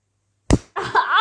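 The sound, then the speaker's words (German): After a moment of silence, a single sharp slap of a hand striking bare skin cracks out, quickly followed by a drawn-out pained vocal cry. “Die wollen hören, wie es klatscht.”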